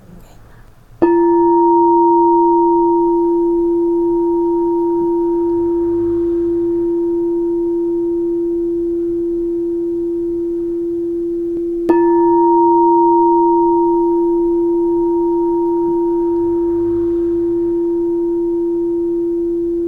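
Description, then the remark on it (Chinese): A crystal singing bowl, struck by a teacher during a crystal bowl healing session, is struck twice, about ten seconds apart, each strike blooming into a loud, steady hum with a clear higher overtone that rings on without fading much. No voices. “一起進入水晶缽的療癒，紅牛老師來敲缽囉”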